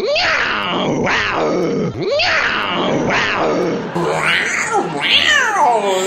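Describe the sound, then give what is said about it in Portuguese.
A voice imitates two cats fighting, with loud, close yowls and snarling wails that rise and fall in rapid sweeps, continuous for several seconds. “Parecia um, dois gatos dentro de um saco brigando.”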